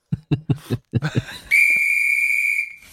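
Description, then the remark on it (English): A single sustained blast of the Titanic's steam whistle, loud and steady at a high pitch, holds for about a second after a rapid series of short vocal bursts, then cuts off. “Get the get the whistle from the Titanic.”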